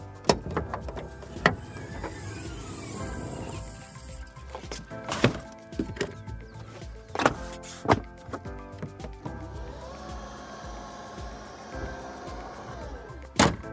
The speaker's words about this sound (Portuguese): Oh, o porta-malas tem abertura elétrica e sensor acionável com o pé. Para aquele momento que as mãos estão ocupadas, o porta-malas do XC40 abre sozinho.